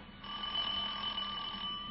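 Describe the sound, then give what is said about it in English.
A doorbell rings in one steady, unbroken electric jangle, shrill and metallic, lasting about two seconds with no pauses and no voices. “Uh, uh, somebody at the door.”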